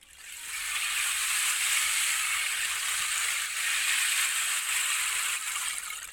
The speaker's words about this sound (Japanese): はい、うまくマイクに乗ったかなちょっと不安ですけどもこんなちょっとね水みたいな音のするすごく不思議な楽器なんですけど、まあ、これが大好きすぎてもう自分で1個作ってしまいました